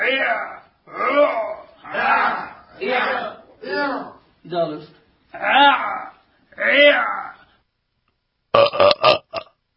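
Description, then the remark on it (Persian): A person gags with a finger down the throat, making about eight loud, harsh, drawn-out retching heaves in a steady rhythm, then a short pause and a quick flurry of choppy gulps. “همون ششاتون رو ببندین اینو دوباره گوش بدید ببینید چه فکر میکنید طرف مثلا سر مسترا نشسته یا یه کار دیگه داره میکنه معلومی تو حلقش انگشت داره کرده”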